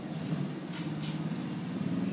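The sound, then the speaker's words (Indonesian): A motorcycle goes by, its engine a steady, low droning rumble with a buzzy edge that holds at about the same loudness throughout, with no voices. “kita dengarkan ke nyaringan suara motor lewat iya,”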